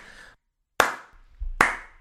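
A few slow, deliberate hand claps, sharp and bright, spaced under a second apart with a thin, slightly compressed quality, as if coming over an internet connection; no one speaks.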